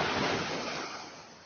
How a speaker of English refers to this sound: Big Boy went down to the beach and sat down. He put a seashell over his ear and listened to the sound of the waves pounding the beach.